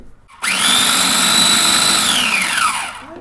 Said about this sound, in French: On va les mettre dans le petit mixeur. Alors c'est un tout petit mixeur, donc du coup on va devoir y aller petit bout par petit bout.